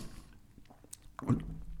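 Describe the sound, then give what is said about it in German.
Wet, gulping swallows of Sion Kölsch beer being drunk, a few soft glugs and liquid squishes building to a louder gulp near the end, with no talking. “Das gluckert jetzt wahrscheinlich ganz furchtbar, aber ähm, naja, so, so, so, so ist das halt.”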